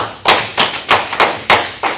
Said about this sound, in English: Can you give the Lord a good hand clap of praise?